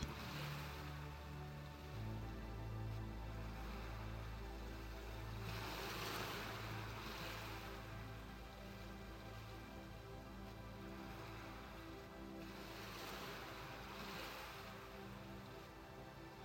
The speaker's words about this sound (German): Die heranrollenden Wellen, wie sie mit einem Rauschen am Ufer auslaufen, wirken sehr beruhigend auf dich.